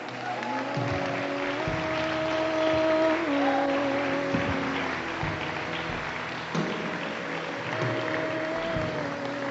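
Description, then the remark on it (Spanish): An audience claps steadily for several seconds, a dense, even wash of applause, while sustained keyboard notes hold and shift underneath. “Dale un aplauso si querés.”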